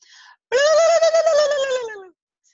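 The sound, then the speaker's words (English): A person vocally imitates a wild turkey gobble: one loud, sustained call with a wavering, quivering pitch that slides downward at the end, preceded by a brief softer sound. “Start by doing the wild turkey when you're by yourself.”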